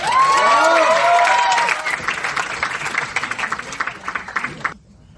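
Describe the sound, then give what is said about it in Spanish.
An audience bursts into loud applause mixed with cheering and a few high whistles or shouts, then the clapping thins into scattered, uneven claps before stopping abruptly after about five seconds. “Contacto, invitación, fuerte el aplauso para todos.”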